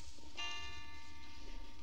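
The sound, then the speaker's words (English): A clock strikes twelve at midnight, one resonant bell-like strike ringing out and slowly fading over a low background rumble, with no voices. “It's striking twelve.”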